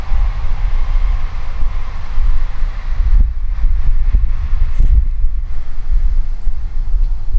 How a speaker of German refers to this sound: Ähm, sehr viele Züge. ich mag Züge. Der war schnell. Der ah, nee, richtig schnell. Der kommt noch.